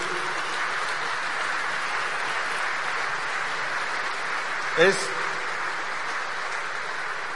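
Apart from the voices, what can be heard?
loud audience applause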